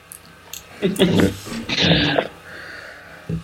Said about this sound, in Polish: No, o to, te dźwięki to kot otwierający drzwi.